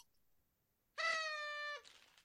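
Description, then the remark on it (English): A single reedy blast from a cheap party horn, held steady for under a second before drooping off with a breathy tail, fairly loud with nothing else around it. “was a party horn.”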